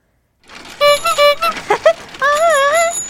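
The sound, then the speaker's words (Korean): Bicycle sounds: a quick run of short, high-pitched squeaks followed by a longer, wavering squeal that rises and falls, fairly loud with no talking. “정답은요 자전거였습니다 자전거 요 소리 듣고요.”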